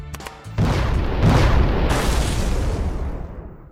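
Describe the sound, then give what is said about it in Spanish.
A loud explosion bursts out after a brief crackle, then a deep, rumbling roar of debris and noise rolls on for several seconds before slowly fading. “Haz los honores. ¡Fuego en la trinchera!”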